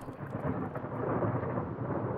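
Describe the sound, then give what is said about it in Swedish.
Steady, heavy rain pours down while a deep, rolling rumble of thunder fills the low end, continuous and fairly loud throughout with no voices. “Men vad ingen av dem vet är att det ute i regnet några hundra meter bort står en man och iakttar stugan och det lilla ljus som den elden ger ifrån sig.”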